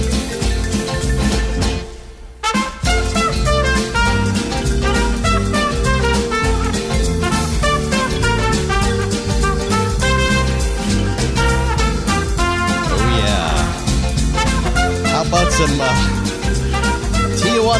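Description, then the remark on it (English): An upbeat brass band instrumental plays loud and continuous, with punchy horn melodies over a steady rhythm section, briefly dropping out for a moment before resuming. “…, …. Why am I playing it?”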